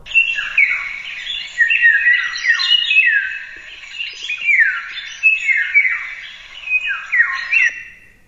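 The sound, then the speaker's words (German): A bird sings a fluting, whistled song of repeated high phrases with swooping, sliding notes, continuing steadily for several seconds with no one talking. “Ich würde den jetzt mal gern abspielen. Ein, also ein richtiges Flöten.”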